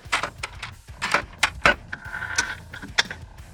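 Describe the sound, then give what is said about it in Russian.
A lock clicks and rattles as a key turns, followed by a series of sharp mechanical clunks and a brief scraping squeal as the door swings open, with no one speaking. “Запертая дверь открылась.”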